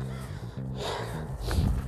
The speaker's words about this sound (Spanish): oigan los cuervos, aquí estoy en el parque